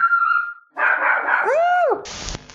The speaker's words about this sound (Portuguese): Meu Deus, um cachorro.